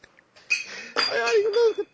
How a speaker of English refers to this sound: Oh, you almost lost that wine glass? Did you hear that? Yeah. Ooh, that was all about to be tragic.